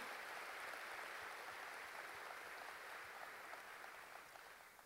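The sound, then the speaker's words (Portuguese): Sustained applause from a large audience for the building they are sitting in, a dense steady clatter of many hands clapping at once, holding strong for several seconds before beginning to ease slightly near the end. “Pode dar um aplauso ao Senhor building? por esse local, por esse lugar?”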